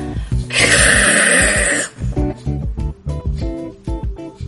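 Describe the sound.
A loud, harsh snore-like rasp lasting over a second, followed by a string of shorter throaty, voiced grunting snorts, with no speech.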